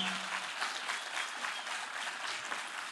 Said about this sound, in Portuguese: Quem aqui ama os seus pastores? Quem ama de verdade os seus pastores? Quem acha que eles merecem um grande aplauso nessa noite?